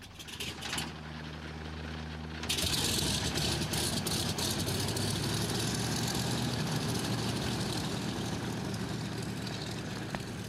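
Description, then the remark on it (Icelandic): Aircraft engines roar up for takeoff as the plane rolls down the runway in the evening dusk: a low droning hum with steady tones gives way at about two and a half seconds to a loud, broad, sustained rushing roar that holds to the end. “Nú þingja hreflarnir átökinn, við rennum af stað eftir flugbröðinni”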